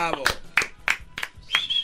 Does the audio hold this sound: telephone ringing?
no